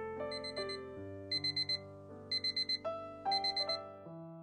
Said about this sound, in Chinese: 随着一声闹钟的响起